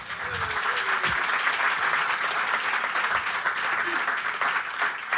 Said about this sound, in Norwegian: Stor applaus for eh, han kødden der.